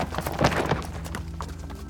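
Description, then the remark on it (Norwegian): Horse hooves clip-clopping in a steady, uneven rhythm of sharp knocks, moderately loud, with no voices over them. “Men han var full og falt av hesten da han skulle ri videre, og sovnet på gården.”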